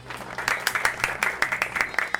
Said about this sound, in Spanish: Así que también hacemos aplausos por ello.